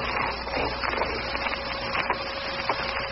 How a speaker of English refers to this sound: and footsteps nearer, nearer, nearer, nearer, nearer.